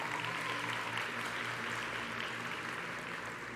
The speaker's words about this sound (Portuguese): Dê uma salva de palmas receber o nosso irmão.